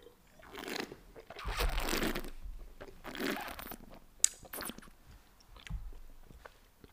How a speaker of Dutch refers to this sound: Ik ga nog even walsen. Even weer een slokje nemen.